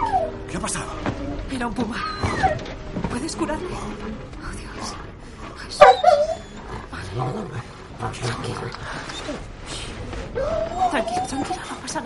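A dog being held by a person whimpers and yips in a string of high, wavering whines and short yelps, moderately loud, with a sharper cry midway and some growling animal noise underneath.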